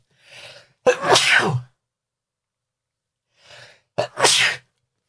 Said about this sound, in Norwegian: Å, oh, er dere ikke glad at jeg nøys to ganger? Hvis jeg bare hadde nøst én gang, så hadde alle dere som hører på, bare sittet med en sånn ekstrem nyseabstinens og følt at jeg må komplettere det. Men jeg kompletterte det for deres skyld.